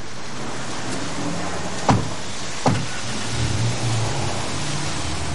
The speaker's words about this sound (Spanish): Observa alejarse al coche en el que han subido el doble de John y la chica.